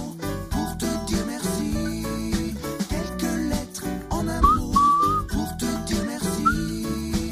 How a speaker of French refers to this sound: c'est un extrait justement de son nouvel album.